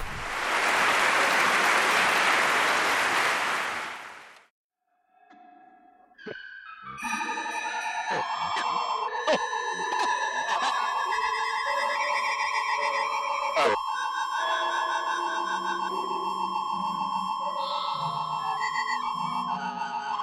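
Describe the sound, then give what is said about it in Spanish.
A loud burst of hissing white noise cuts off into near silence. Electronically processed tones then build into dense sustained layers, pierced by sharp percussive strikes: sounds of timpani, flutes, piccolos and white noise treated with electronic techniques. “La segunda sección es muy diferente y aplica las técnicas electrónicas habituales a los sonidos producidos por timbales, flautas, pícolos y ruido blanco.”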